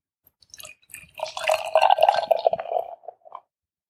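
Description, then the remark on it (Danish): Top-fermented porter beer pours into a glass, a steady gurgling, bubbling stream lasting about two seconds, with a few small splashes and drips before and after it. “Og her tror jeg, vi fik hældt op synkront.”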